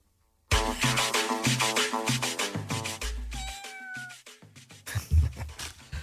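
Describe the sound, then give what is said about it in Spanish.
A cat meows amid a loud, bouncy musical jingle, its drawn-out rising and falling cries standing out clearly over the rhythmic backing. “El gato político. ¡Miau!”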